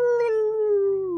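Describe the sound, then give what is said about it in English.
A single sustained howl, like a wolf or dog, coming from directly in front, holding a steady pitch and slowly sliding down over about a second, loud, with no talking. “and we're going to stop there because it's the sound of a howl coming from directly in front of you.”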